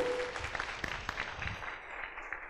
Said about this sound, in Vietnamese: một tràng vỗ tay lớn hơn nữa